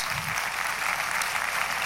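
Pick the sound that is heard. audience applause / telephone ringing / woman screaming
audience applause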